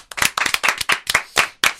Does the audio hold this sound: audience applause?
yes